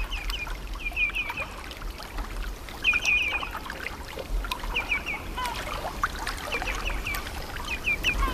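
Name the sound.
small waves lapping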